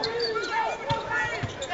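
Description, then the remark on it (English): A basketball is bounced once on the court by a BYU player at the Marriott Center, a short, dull thud rising above a steady murmur of crowd noise and indistinct voices. “Luke bounces once.”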